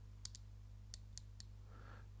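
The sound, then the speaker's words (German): A stepped airflow adjustment wheel with five settings clicks as it is turned closed and then open again, giving five crisp, quiet clicks in two short bursts over a steady low background hum. No one speaks. “Jetzt drehe ich es zu. Jetzt drehe ich es wieder auf. Also man kann es stufenweise weiter verdrehen.”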